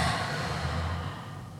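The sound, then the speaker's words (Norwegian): A slow, breathy exhale through the mouth while lying down during a breathing exercise, soft, a steady airy rush that gradually fades over a second or two with no talking. “Og ut gjennom munnen.”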